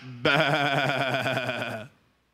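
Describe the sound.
A person imitates a sheep with one long, wavering "baa" bleat, strongly harmonic with a quavering vibrato, held for about a second and a half before stopping abruptly.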